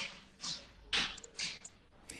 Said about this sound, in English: Here she comes clomping. I hear the stomping.